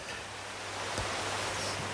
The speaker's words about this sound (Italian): eh, questo suono di mare, mamma mia.